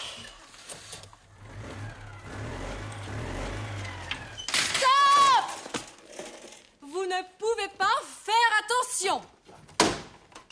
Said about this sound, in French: Oh non, cette voiture